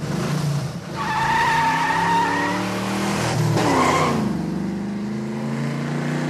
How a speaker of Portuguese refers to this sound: Eu sei que a gente estava saindo, já se, de, se dirigindo para o portão de sair, e tinha um outro veículo saindo. Cara, ele acelerou.